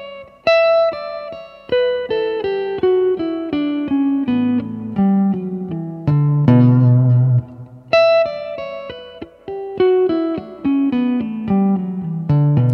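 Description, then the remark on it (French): A clean electric guitar plays fast legato runs of tapped notes, using hammer-from-nowhere taps instead of pull-offs, that cascade downward in pitch. The phrase is played twice with a short pause between, and no one speaks. “Donc au lieu de faire des pulling off comme ceci, moi je fais des Hammer from Nowhere. C'est-à-dire je tape.”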